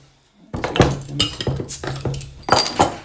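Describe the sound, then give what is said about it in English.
Several glasses clink together in a quick, uneven burst of bright knocks and rattles, like a group toast, with no voices over it. “Cheers, boys. Cheers, guys.”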